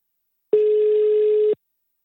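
A single steady telephone line tone sounds clearly for about one second as a call connects, starting and stopping abruptly, with silence on either side and no voices.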